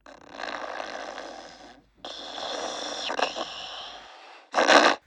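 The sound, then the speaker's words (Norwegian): A person snores loudly while asleep in the middle of the night, with two long, rasping breaths followed by a short, sharper snort. The sound is harsh, with no talking. “Ingenting kan vekke … når hun først sover.”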